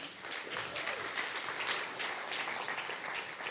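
A crowd at a sermon applauds steadily for a few seconds as someone is invited up to play a game, a dense, even wash of many hands clapping at once with no voices standing out.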